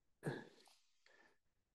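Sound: throat clearing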